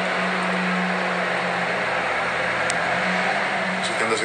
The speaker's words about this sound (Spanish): va a pasar un camión, no voy a escuchar bien.